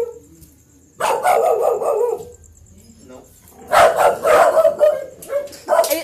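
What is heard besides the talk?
dogs barking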